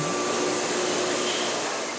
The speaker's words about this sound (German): Eine Säge arbeitet sich durch fünf Meter lange Holzbohlen. Am Ende werden daraus kleine Äpfel und Birnen für das Brettspiel Obstgarten oder Kugeln für die Kugelbahn.